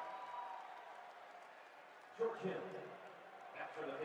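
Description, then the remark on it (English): Arena crowd applause at an Indiana Pacers versus Utah Jazz game as George Hill checks in: a steady wash of clapping and crowd noise that swells into louder bursts partway through and again near the end, with murmured voices mixed in. “Crowd gives him another warm round of applause.”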